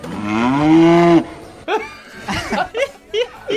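A berrante cattle horn gives one loud mooing blast lasting about a second, its pitch bending slightly upward, followed by people laughing and talking in short bursts.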